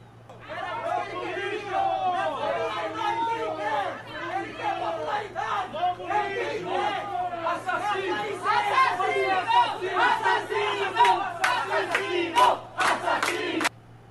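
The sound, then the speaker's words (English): A crowd of Christian protesters blocking an abortion clinic door in Brazil screams and shouts angrily at a 10-year-old girl, yelling "assassin", many loud voices overlapping in a continuous, chaotic din, with a few sharp bursts of noise near the end before it cuts off. “Um, so yeah, stupid ass Christians in Brazil blocked the abortion clinic door and screamed at her and would not let her enter the abortion clinic.”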